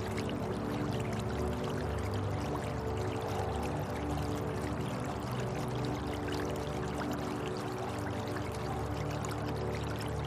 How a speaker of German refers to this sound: Auf der rechten Seite unseres Weges fließt ein kleiner Bach entlang. Er begleitet uns auf unserer Reise und plätschert leise vor sich hin.